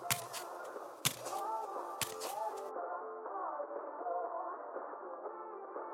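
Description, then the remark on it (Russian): Thin, muffled radio sound plays faintly in a narrow, long, dimly lit fourth-floor corridor, tinny voices or music drifting along, with a couple of sharp knocks early on before it settles into a steady, band-limited murmur. “Освещение темнее, чем на других этажах, еле слышны звуки радио.”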